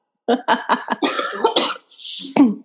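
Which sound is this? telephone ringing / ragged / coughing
coughing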